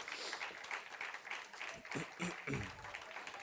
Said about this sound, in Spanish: Denle un aplauso a Cristo, por favor, ahí donde está, en el nombre de Jesús.